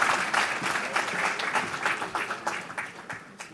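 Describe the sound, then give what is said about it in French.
An audience applauds at the end of a debate, a dense patter of many hands clapping at an even level that thins slightly toward the end, with no voices standing out. “Merci sous les applaudissements du public.”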